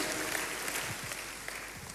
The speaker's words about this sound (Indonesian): Boleh katakan amin, kita kasih tepuk tangannya yang paling meriah buat Tuhan kita.